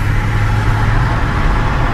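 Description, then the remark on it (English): A small Kia car speeds past amid a steady, loud roar of engine and road noise that holds even throughout, with no voices. “a little Kia comes and flies past”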